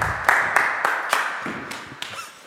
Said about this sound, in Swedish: Jag vet inte riktigt när, men någonstans så, så tyckte han att det blev fel här. Eh, oavsett, applåder!